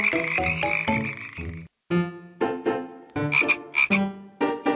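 A frog croaks over and over in quick, buzzy bursts, low to mid in pitch and fairly loud, broken by one short pause. No one speaks.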